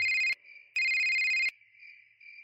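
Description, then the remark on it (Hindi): A phone ringtone for an incoming call rings in two loud electronic bursts with a short gap, each ending abruptly, then a faint tonal trill lingers quietly. No one speaks. “doorbell बार बार बज रही थी फिर अरुण ने रचिता को कॉल किया”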